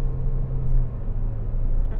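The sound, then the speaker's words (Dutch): A steady low engine rumble and road noise from inside a moving car overtaking a truck, continuous and fairly loud, with a faint hum running throughout and no clear talking. “Maar, ehm, oh, ik ben aan het rijden.”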